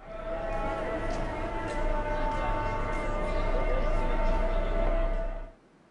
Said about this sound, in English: So here's a recording of a market in Morocco.